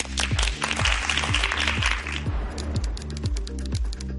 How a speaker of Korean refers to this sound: 자, 그럼 박수로 본격적인 강연 부탁드리겠습니다.